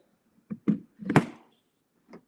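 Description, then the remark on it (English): A door slams shut with a loud, sharp bang, preceded by a couple of quicker knocks and rattles as it swings, then one soft thump a moment later. No one speaks. “Be slamming my door.”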